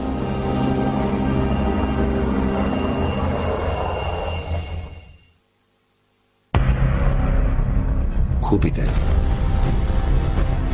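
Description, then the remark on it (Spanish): A loud, dense roar of radio emissions from Jupiter's magnetic field, rushing and hissing with faint steady tones, fades out into brief silence, then cuts back in abruptly just as loud. “El campo magnético de Júpiter es monstruoso y ruge. De hecho, nos está hablando ahora mismo.”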